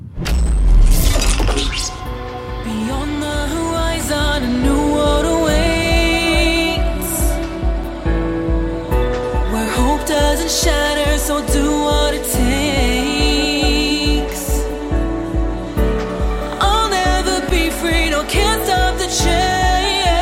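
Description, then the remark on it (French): A loud, continuous mainstream electro-pop duet song from an album plays, with a steady driving beat, bright synth layers and melodic sung vocals riding over the top for the whole stretch, no talking. “je vous propose d'ailleurs d'écouter un petit extrait tout de suite d'…”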